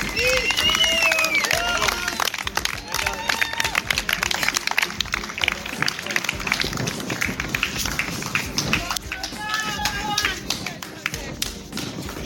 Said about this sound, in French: Voilà, tous les applaudissements qu'on a entendus, c'est les coureurs du 21 km qui s'apprêtent à partir ça veut dire qu'il reste que 20 km.